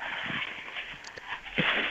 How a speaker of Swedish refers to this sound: Är det Filip som låter så här jävla störigt eller? Ja, det är jag. Jag torkar glas.